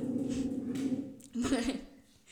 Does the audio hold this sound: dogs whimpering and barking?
yes